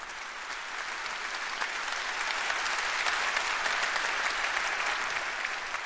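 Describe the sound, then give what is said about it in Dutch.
Steady, dense applause played through a loudspeaker: many hands clapping in a continuous crackling wash that holds an even, fairly loud level for about six seconds, with no voices over it. “ik hoor nou applaus uit een speaker komen.”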